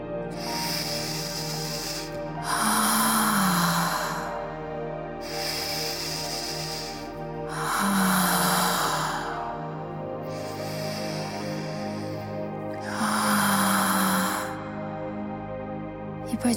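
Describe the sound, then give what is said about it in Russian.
Slow, deliberate breathing, airy inhales through the nose alternating with longer hissing exhales through the mouth, about three full cycles at an unhurried pace over a soft, sustained musical drone. “Вдох через нос, выдох через рот.”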